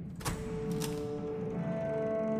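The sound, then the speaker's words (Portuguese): A door being unlocked outside: a couple of sharp metallic clicks and rattles from a latch or key, followed by a lingering tonal hum, with no voices. “De repente vocês escutam do lado de fora um barulho de uma porta sendo destrancada.”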